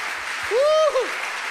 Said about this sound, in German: lasst uns mal diesen Leuten allen wirklich einen Applaus geben. Ihr seid Heroes hier in der Church.